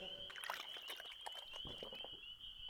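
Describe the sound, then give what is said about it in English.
Water being poured out of a bucket, a quiet run of splashing, trickling bursts lasting a few seconds, with a thin steady high tone in the background. “He gave me some water from a bucket.”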